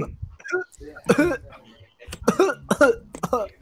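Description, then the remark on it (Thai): Someone coughs and clears their throat in a few harsh, voiced bursts, with brief pauses between the fits, from hair stuck in the throat. “ขนติดคอ”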